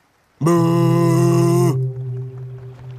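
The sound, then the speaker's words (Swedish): A big boat's horn sounds one long, deep hooting blast, loud and rich in harmonics, then drops to a quieter, steady low drone that lingers to the end. “när Emil redan hade gett upp hoppet om att någonsin få känna fast mark under klövarna igen, hördes ett dovt tutande.”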